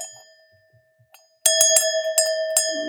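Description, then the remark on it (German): A bell chime rings out: a soft lingering tone fades away, then a loud, bright bell is struck several times in quick succession, ringing continuously with no voices. “Klingeling. Gehen. Ding Dong.”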